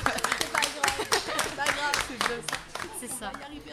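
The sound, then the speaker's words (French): A short burst of steady, moderately loud clapping from a small group for the losing contestants of an 1980s-themed quiz, with voices talking over the applause throughout. “Mais on applaudit quand même parce qu'elles sont venues.”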